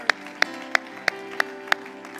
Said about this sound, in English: I'm excited about what Jesus is doing. Clap your hands one more time to the Lord.